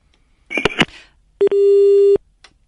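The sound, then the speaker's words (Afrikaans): A couple of crackling clicks on a phone line, then a short beep and a longer steady telephone busy tone from a dropped call, loud, with no one speaking. “Ons verloor baie oproepe.”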